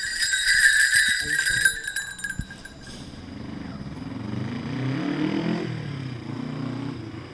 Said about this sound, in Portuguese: Alcáçovas no Conselho de Viena do Alentejo, tem esta grandeza pelo menos desde o século XVIII. Uma terra que cresceu com a arte dos chocalhos e hoje é a única localidade portuguesa onde se constroem.